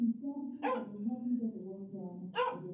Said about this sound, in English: I rang the bell. A dog barked. Someone told it to shut up.